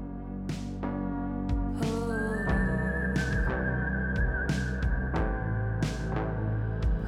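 A clear, sustained whistled melody enters a couple of seconds in and carries over a full music track with steady bass and regular percussive hits, no voices present.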